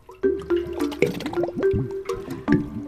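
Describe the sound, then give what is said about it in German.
Wet splashing and bubbly gurgling sounds repeat in quick bursts, with liquid sloshing and dripping, as the Bubbelmuck, a creature, clambers out of a water jug. “Währenddessen klettert der Bubbelmuck aus dem Wasserkrug, rollt einmal durch die orangene Farbe und hüpft dann über das Zeichenblatt.”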